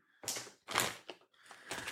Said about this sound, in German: kurze Frage, was, was das raschelt da bei dir, Mann?